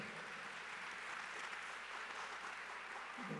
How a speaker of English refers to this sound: Clap it up, you can clap it up. Yeah.